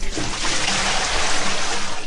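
A steady rush of water pours out for about two seconds, loud, as a bucket of water is emptied in one continuous splash with no voices.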